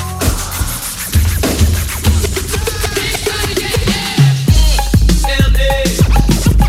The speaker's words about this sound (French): On s'en va écouter euh, … avec …. On porte attention aux paroles.